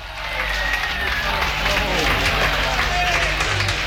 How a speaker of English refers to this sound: And I want you to get your hands together right now for a nice big round of applause